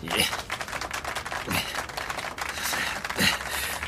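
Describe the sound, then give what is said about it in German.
Rapid knife chopping on a cutting board as potatoes are cut into fries by hand, without a slicing machine, by finalists in a cooking contest: a dense, steady clatter of quick cuts, punctuated by a few heavier thunks, with no voices. “Und ihr seht, hier kommt keine schnöde Schneidemaschine zum Einsatz. Beide Finalisten fertigen die Pommes von Hand.”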